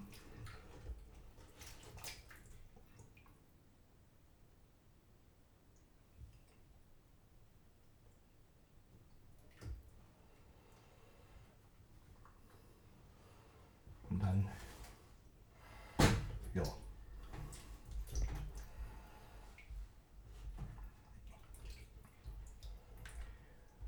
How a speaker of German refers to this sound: Jetzt ein bisschen einweichen lassen, damit ich die Schüssel auch sauber kriege.